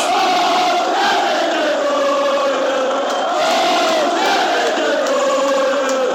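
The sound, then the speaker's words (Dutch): A huge football stadium crowd in Manchester sings a chant together after a goal is scored, thousands of voices carrying a sustained, swaying melody loudly and continuously with no pauses. “Maar je hoort het ook als Kevin de Bruyne scoort. Dan zingen ze in Manchester...”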